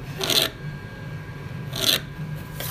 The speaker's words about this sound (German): Okay, unsere Heizung geht gerade an. Sorry für die Nebengeräusche.